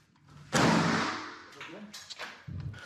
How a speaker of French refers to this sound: Ils pénètrent à l'intérieur et inspectent chaque pièce méthodiquement, à la recherche du moindre signe de vie. Mais dès qu'un doute survient, comme dans cette cage d'escalier, il tire.